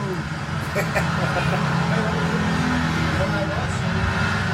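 A car engine rumbles steadily and loudly, a low, continuous motor roar that holds at the same level for several seconds without fading away.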